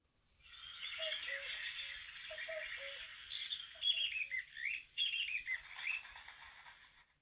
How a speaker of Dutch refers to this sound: Prachtig. ja, je hoort geklapper van, een, van, een, eh, van veren, maar je hoort ook een koekoek. Heel goed. En je hoort nog een vogel eromheen. Een wielenwaal.